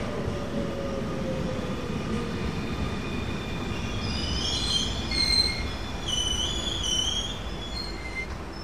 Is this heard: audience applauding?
no